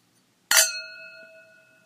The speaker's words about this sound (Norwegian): Og vi har jo da, som nevnt eh, i begynnelsen av denne poden, helt psyko mange subscribers. Vi tar en skål til for det.